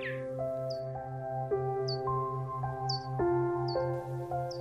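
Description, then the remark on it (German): Bats squeak in short, high-pitched chirps about once a second over a soft, steady fluttering pulse of their wings in a pitch-black night, with sustained musical tones holding underneath. “Aber da, da war das Flattergeräusch schon wieder. Und jetzt hörst du auch noch piepsige Quietschlaute.”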